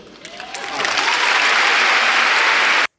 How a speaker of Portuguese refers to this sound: Calma, calma, calma, não aplaudam já.